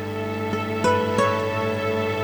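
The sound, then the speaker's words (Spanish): Soft, sustained instrumental music from a music-therapy album plays steadily as background music, with rich layered tones and a few gentle accents breaking in near the start; calm and continuous, with no voices. “tenemos una música de fondo a nuestras palabras. Hoy ese disco de musicoterapia que se llama …”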